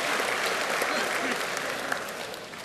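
Clapping for someone's singing fills the whole stretch, a dense, steady patter of many quick overlapping claps at an even loudness that fades slightly toward the end.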